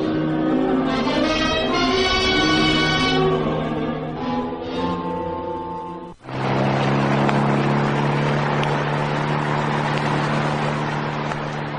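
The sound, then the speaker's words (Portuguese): A car engine roars as the car speeds along a road between Porto Alegre and São Lourenço do Sul, a loud, steady droning hum with shifting tones. It drops out for a split second midway, then surges back and keeps rushing along. “O carro de Amanda, chispando na estrada, deixou para trás as cidades de Taques e Camacuã.”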